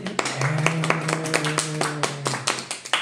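A small audience claps for itself, with irregular sharp hand claps overlapping in a quick, uneven patter, while a low steady hum and faint voices sit underneath.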